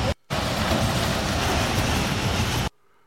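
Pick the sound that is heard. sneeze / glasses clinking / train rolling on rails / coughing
train rolling on rails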